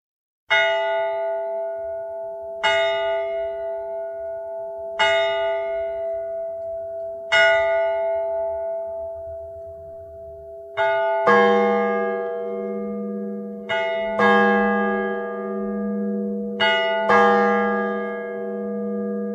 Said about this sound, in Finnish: Nyt on puolipäivä. Turun tuomiokirkon kello lyö.